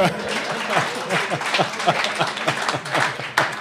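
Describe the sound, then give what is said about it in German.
A burst of applause from a small crowd, dense steady clapping lasting a few seconds, with voices chattering and cheering underneath. “Ein Applaus für”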